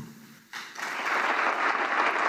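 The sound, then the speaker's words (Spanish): Applause for Lionel Messi after his speech swells in after a brief quieter moment, becoming a dense, steady wash of clapping that stays loud and sustained to the end, with no voices heard over it; the applause lasted about one minute 37 to 39 seconds. “Bueno, lo que pasa después de eso es un minuto 37-39 de estos aplausos.”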